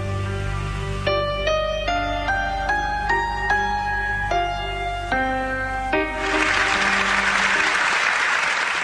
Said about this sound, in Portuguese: agradecimento vem em forma de aplausos demorados e lágrimas.